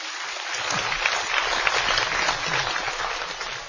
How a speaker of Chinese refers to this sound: 掌声有请连春剑。